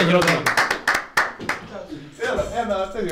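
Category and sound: crowd, applause sound effect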